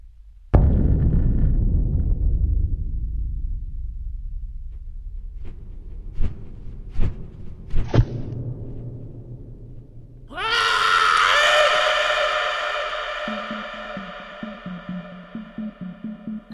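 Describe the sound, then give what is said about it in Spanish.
A deep, booming thud rumbles, followed by a few sharp whooshing beats of huge flapping wings as something lands, then a loud, piercing, strange, supernatural shriek rings out and holds over a low pulsing drone. “de repente escuchamos ese aleteo enorme de las alas, se aterriza y luego escuchamos ese como pues ese alarido extraño, eh, sí, sobrenatural”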